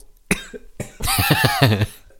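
A series of harsh coughs from a person with an irritated throat: one sharp burst, a pause, then a longer fit of several rapid raspy coughs running together, loud and with no talking.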